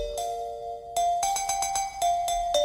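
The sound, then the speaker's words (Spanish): Traditional Malaysian music played on bell-like percussion: a quick series of bright metallic strikes over a steady, sustained ringing tone, moderately loud, with no voices. “En Corea, por ejemplo, sí que como unos xilófonos, pero que son como hechos con campanas.”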